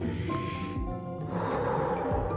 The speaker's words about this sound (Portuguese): por isso que aquele dia é o dia que precisamos nos acalmar, literalmente, respirar profundamente várias vezes, encher os pulmões de ar,